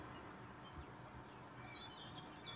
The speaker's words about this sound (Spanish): También hay pequeños pájaros que no identifico, pero que me alegran con sus cantos desde los árboles del camino.